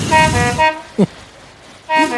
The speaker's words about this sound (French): non, ça c'est le son de l'ancienne sirène du SAMU, parce que la sirène du SAMU aujourd'hui c'est ça.